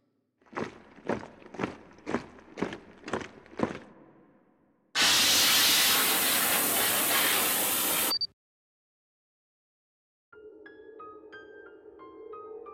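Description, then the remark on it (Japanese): Seven quick footsteps, then a loud, steady hiss of disinfectant spray from a disinfection team lasting about three seconds, which cuts off abruptly; soft tonal chiming follows after a pause. “消毒班消毒願います”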